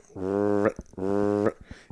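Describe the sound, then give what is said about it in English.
A voice imitates a drake mallard's call twice, two low, raspy, nasal bursts of about half a second each with a short pause between them. “Uh, you know, like a, a, a Drake Mallard's like, it's”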